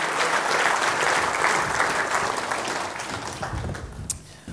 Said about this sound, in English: hey, this guy's a 40 days junkie, isn't he? Let's give him a real big round of applause.